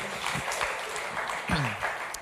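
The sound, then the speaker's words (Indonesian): A crowd breaks into steady, dense applause for friends from another campus, many hands clapping together at an even loudness throughout, with a brief low voice or cheer rising through it partway. “Boleh kita beri tepuk tangan for our friends um, in Best Day.”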